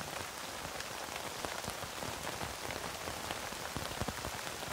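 Steady rain patters down on a tent, a dense hiss of countless drops with occasional sharper taps standing out, holding an even, moderately soft level throughout with no voices.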